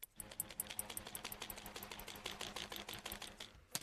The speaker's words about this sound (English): Now cut about three meters of string and tie one end onto the popsicle stick and then give yourself some space because you know to swing it over your head. And it should make a sound like a bee.